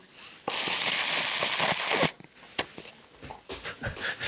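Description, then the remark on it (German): A long, hissy slurp of noodles runs for well over a second, loud and airy, then stops abruptly, followed by a few soft wet mouth clicks and smacks as chewing begins. “Hört man das, wenn man sich so die Nudeln reinzieht?”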